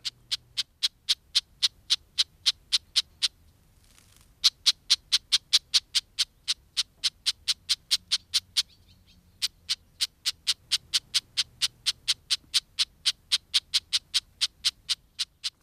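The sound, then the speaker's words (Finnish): Red-backed shrike alarm calls: sharp, dry clicking chacks repeated in a steady rapid series of several per second, broken by two short pauses, clear against a quiet background. “Viikon luontoääni: Pikkulepinkäinen”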